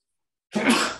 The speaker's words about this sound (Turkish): çok pardon. Çok yaşa.